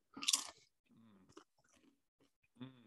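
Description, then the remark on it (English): A sharp, loud crunch of a bite into a Barnana spicy mango salsa kettle-style chip, followed by a couple of seconds of softer, irregular chewing and mouth sounds, with no talking. “So let me give another chip”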